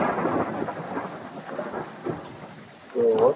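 Heavy rain in a video game pours in a steady, dense hiss while low thunder rumbles underneath, and a brief louder tonal sound rises near the end.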